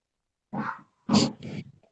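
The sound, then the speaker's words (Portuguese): A dog barks three times, a single bark followed after a short pause by two quick ones in a row, clear with no talking over it. “Olha, essa, criatura que fez o cachorro ficar latindo.”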